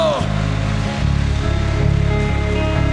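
A large church audience claps steadily in a dense, continuous wash of applause for God, with sustained low musical tones playing underneath throughout.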